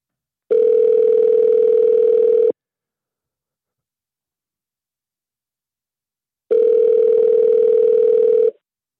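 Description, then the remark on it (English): A telephone ringback tone sounds twice as a phone call is placed, each steady electronic burr lasting about two seconds with a long silent gap between, fairly loud with no voices. “Now it's ringing.”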